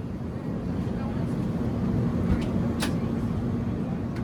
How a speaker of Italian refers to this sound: Questo che sentite è il rumore dell'interno di un aereo che sta volando sopra l'oceano. Le luci sono spente, ma la cabina è illuminata da decine di schermi. Stavo andando a New York